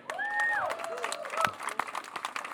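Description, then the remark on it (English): A crowd at an outdoor libertarian gathering out in the middle of nowhere applauds with quick, uneven clapping that runs throughout, over a sustained wavering whistle-like tone and some voices in the background. “So round of applause for you guys.”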